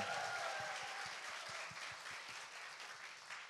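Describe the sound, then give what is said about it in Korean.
Steady audience applause fills the whole stretch, dense overlapping claps with a few sharper individual hand claps standing out, holding fairly loud and only easing slightly toward the end. “시작해서 박수를 청해 듣겠습니다.”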